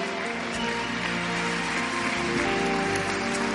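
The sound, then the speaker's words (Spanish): An audience at a Spanish-language church service claps steadily for several seconds as an offering of applause to God, a dense, even patter of many hands, with a soft sustained musical tone humming underneath. “¿Puedes dar una ofrenda de aplauso al Rey?”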